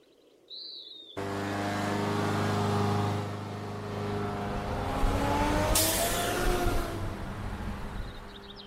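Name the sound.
road traffic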